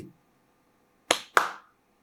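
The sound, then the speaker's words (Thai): Two sharp, crisp, fairly loud hand claps about a quarter second apart, the second ringing slightly longer, against an otherwise quiet background with no voices; a person near a hut clapping in reply to a shouted question. “ภรรยาก็มองสามีแล้วก็พยักหน้ายืนยันว่า ได้ยินเหมือนกันได้ยินเสียงตบมือหนึ่งครั้ง”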